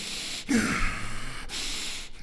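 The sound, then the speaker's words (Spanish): A voice imitates the exhausted, gasping breathing of someone with a respiratory problem: a few harsh, airy breaths in quick succession, fairly loud, with brief pauses between each ragged inhale and exhale. “Entonces tienen esta respiración entre, eh, como desollante, se podría decir.”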